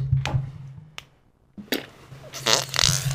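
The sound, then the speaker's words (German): A loud, sputtering fart with a low rumbling buzz, broken by sharp crackling bursts and ending in a noisy, hissing blast. No one speaks. “bedankt sich mit einem letzten Darmwind.”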